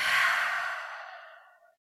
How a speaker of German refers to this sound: Und dann kannst du einfach beginnen, über die Nase tief in den Bauch einzuatmen. Du kannst auch richtig aktiv die Bauchdecke nach außen schieben. Und dann kannst du mal hörbar über den Mund ausatmen.